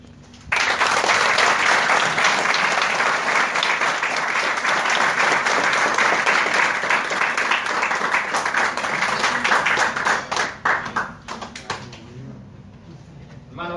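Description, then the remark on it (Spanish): Audience applause at the end of a speech on education breaks out and holds steady as a dense wash of clapping for about ten seconds, then thins into scattered individual claps before fading. “ese aplauso muy pobre, ¿eh?”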